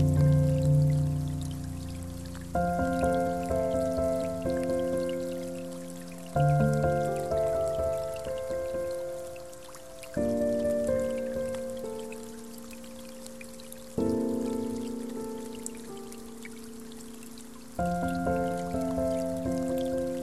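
Steady, soft rain hisses in the background beneath slow, sustained piano chords that ring out one after another in a relaxing meditation, with no voices present.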